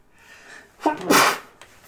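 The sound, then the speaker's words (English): A single sharp sneeze, with a brief intake of breath before the loud explosive burst, then quiet. “Bless you.”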